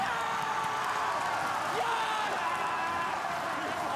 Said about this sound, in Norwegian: Det er pur glede i det, i det seiersropet der. Og deilig at TV 2 har fått sånne mikker som tar opp, eh, tar opp lyden av spilleren der.